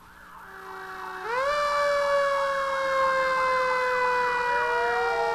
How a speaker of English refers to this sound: It's a fire truck, right? Fire truck, with the extra noisy horn part,